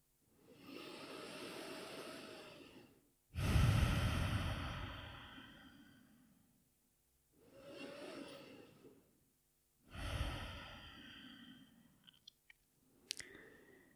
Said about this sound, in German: Nimm ein paar Atemzüge hier ganz bewusst in den Herzraum ein und aus.